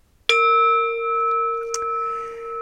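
A Tibetan singing bowl is struck once, ringing out with a bright, sustained metallic tone that shimmers and gently wavers, with a faint tap partway through the resonance.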